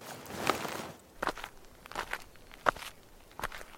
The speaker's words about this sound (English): I walked toward the noise, checking each small bush as I passed, but nothing.